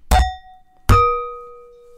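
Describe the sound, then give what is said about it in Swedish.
Two bright clinks of wine glasses in a toast, about a second apart, the second ringing out with a clear, lingering tone that slowly fades. No one speaks. “Oj, ta, ta inte sönder något glas här nu.”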